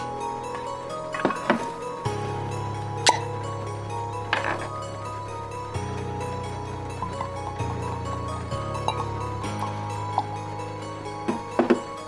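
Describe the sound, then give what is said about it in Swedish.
A glass of cognac being poured at a bar cart: scattered glassy clinks and taps of bottle against glass over a low, steady hum, with no one talking. “går fram till barvagnen och häller upp ett glas konjak.”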